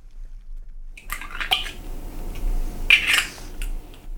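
Eggs cracked into a bowl: a few sharp shell taps and cracks, then soft wet slipping and dripping sounds as the contents fall in. No one speaks.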